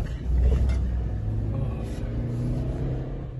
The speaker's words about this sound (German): Man hört, wie das Auto beschleunigt, wie Gegenstände gegen das Auto schlagen und man sieht, wie eine Person einen Gegenstand in Richtung des Autos wirft.